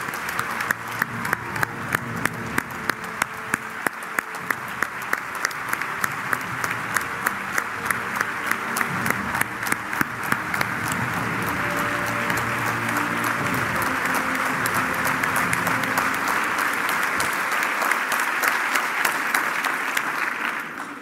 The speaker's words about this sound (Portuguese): aos nossos dois líderes regionais, ao seu grupo parlamentar e ao seu grupo de trabalho, uma enorme salva de palmas.